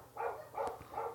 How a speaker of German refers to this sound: Hört man den Hund? Ja, ja, klar, das ist mein Hund, das macht nichts.